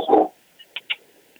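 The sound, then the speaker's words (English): A dog gives one loud bark, followed by two quick, sharper yips a moment later, then quiet. No one speaks. “Sorry, my dog's fucking tripping.”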